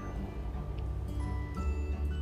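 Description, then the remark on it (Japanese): A freight train rumbles past, a heavy continuous low roar with faint metallic squeals and clicks on top, steady and loud throughout with no voices. “すみませんちょっと貨物列車が通ってますねすいません”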